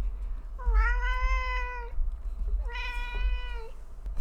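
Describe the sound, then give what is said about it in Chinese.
A cat meows twice, each call long and drawn out with a steady, slightly rising-then-falling pitch, separated by a short pause. The calls are clear over a low, constant background rumble, with no talking. “猫猫好可爱， 让你们听一下。”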